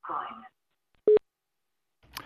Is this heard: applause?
no